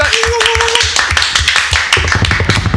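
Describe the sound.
An audience at an evening event applauds the event's host loudly and steadily, dense overlapping claps filling the whole moment, with a brief tonal whistle or cheer near the start and some voices mixed into the crowd noise.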